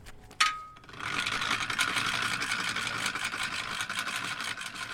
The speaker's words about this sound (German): geht es für das Aluboot von Michael dann noch lautstark auf den Trailer